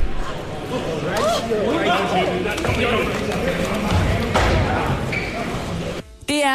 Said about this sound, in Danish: Og hvis du lige er i tvivl om, hvordan det lyder, når man knuser et æg imod en øh, senators hoved, jamen så kan du høre det her.